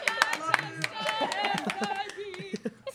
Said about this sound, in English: clap it up, clap it up for your friend.